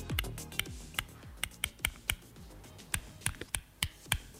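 A series of sharp, dry clicks of two small pebbles knocked together, repeating at an uneven pace about a dozen times, fairly crisp with no talking.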